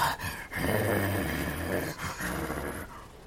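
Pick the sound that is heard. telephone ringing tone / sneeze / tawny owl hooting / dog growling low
dog growling low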